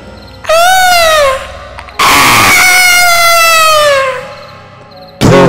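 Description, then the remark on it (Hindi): Shrill, drawn-out screams of a witch burning to ash along with a house rise and fall, loud, two long wails in a row followed by the start of a third, with no talking. “खैर वो खौफनाक चुड़ैल महतो के घर के साथ साथ राख भी हो रही थी और चिल्लाती जा रही थी”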